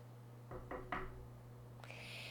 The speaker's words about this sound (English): Her father went to the castle, pounded on the door, and told the dragon to open up.